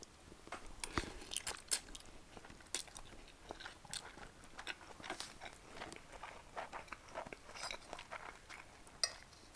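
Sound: chewing and crunching food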